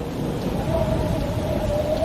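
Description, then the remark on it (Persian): Heavy, steady rain and hail pour down under a low, continuous rumble like thunder, with a faint whistling tone drifting through the storm. No voices are heard. “فردا بارون تگرگ سیلاسایی اومد غروب آسمون کمی صاف شد اما سرمایه شدیدی بود”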